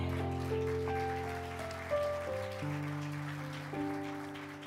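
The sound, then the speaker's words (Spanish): A crowd at an anniversary celebration applauds for the king in a steady, dense patter throughout, mixed with sustained organ or keyboard chords that shift pitch every second or so. No one speaks. “¿Cuántos le dan un aplauso al rey?”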